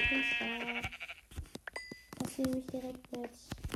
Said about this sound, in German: Da ist ein Schaf. Da ist ein Schaf.